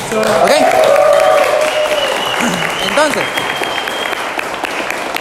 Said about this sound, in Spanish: y eso merece un fuerte aplauso, ¿verdad que sí?